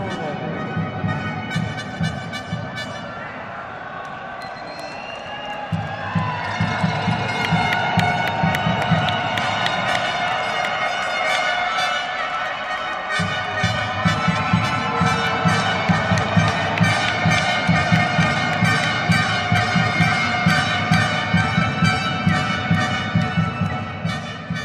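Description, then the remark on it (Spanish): A loud, dense crowd roars and cheers continuously at Arena México, the lucha libre arena in the Doctores neighborhood of Mexico City, with overlapping shouts and whistles rising in waves and a rhythmic low thumping beneath, the din swelling again after a brief lull. “Además, es una de las cuatro arenas más prestigiosas de la Ciudad de México.”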